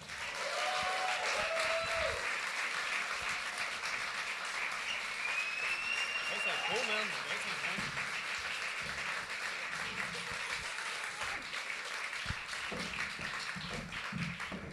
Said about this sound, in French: J'aimerais ça qu'on donne une bonne main d'applaudissement